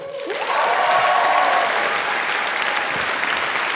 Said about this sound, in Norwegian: Tusen takk til et helt nydelig publikum. Gi dere sjøl en applaus.